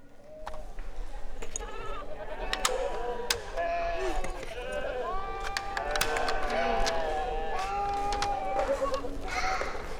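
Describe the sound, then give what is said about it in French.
A flock of sheep bleating, many wavering, nasal cries overlapping one another continuously over a low, steady rumble for the whole stretch. “Le mouton belle.”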